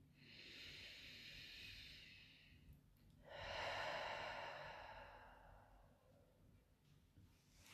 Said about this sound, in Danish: Og så lad os tage en afsluttende vejrtrækning sammen.